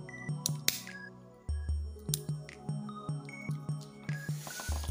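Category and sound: household object, lighter being flicked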